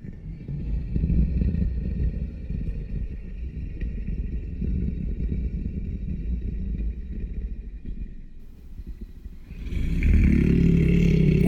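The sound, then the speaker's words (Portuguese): A deep, echoing rumble like a huge creature snoring in a cave rolls on steadily with no talking, then swells louder and fuller near the end. “O ronco da criatura ecoava por toda a caverna, tal qual tambores de guerra em uma planície.”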